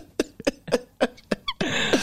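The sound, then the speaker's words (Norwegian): A rapid series of short, sharp coughs right up against a new microphone, ending in a loud, breathy burst that sprays noise into it. “Hvis du spytter til inni den nye mikrofonen nå, du får snyte deg i genseren din.”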